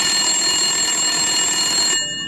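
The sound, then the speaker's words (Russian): A loud, continuous telephone ring in a young woman's home, with a bright, buzzing bell tone, holding steady for about two seconds before cutting off abruptly. No voices are present. “В доме девушки раздается телефонный звонок.”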